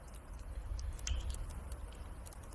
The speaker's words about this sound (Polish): I powinno być słychać dźwięki tła, w sensie jakieś kapanko czy coś. Jeżeli tego nie słychać, to zrobię trochę głośniej. O, teraz powinno być słychać wyraźnie.